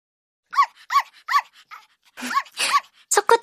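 A very small puppy named Chocochip, held in someone's arms in a parking lot, yaps repeatedly, about eight high, sharp barks: a few evenly spaced at first, then a quicker, rougher cluster toward the end.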